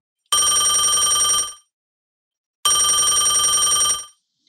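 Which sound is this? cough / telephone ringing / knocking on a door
telephone ringing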